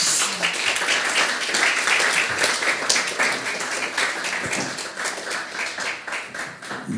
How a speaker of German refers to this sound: Wir begrüßen dich mit einem warmen Applaus.